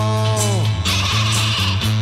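A sheep bleats loudly, a wavering, nasal call that holds steady and then breaks into a second rough, quavering stretch, with no talking over it.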